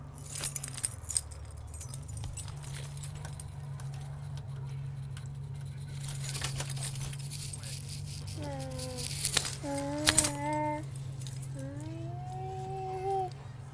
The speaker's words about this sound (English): I can't even get the goddamn keys. It's so dark.